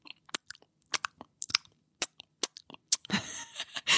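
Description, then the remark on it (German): Wet smacking and chewing mouth noises in an irregular rhythm of short clicks and squelches, ending in a denser, louder burst of smacking. No talking. “Wenn jemand dabei so ein Schmatzgeräusch macht, ey, da flipp ich innerlich aus, ey, da kriege ich, oh, da kriege ich Aggression.”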